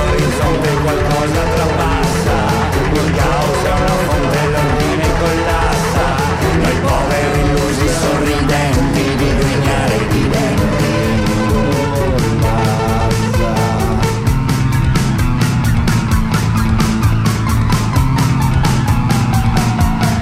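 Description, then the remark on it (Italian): A song plays loud and close for the whole stretch, driven by a steady, quick beat under thick layered instruments, with nobody talking over it. “ho pensato che è uno di quei brani impossibili da imparare a memoria, cioè lo devi fare col testo e impegnarti tantissimo.”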